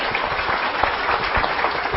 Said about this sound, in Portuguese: Uma salva de palmas para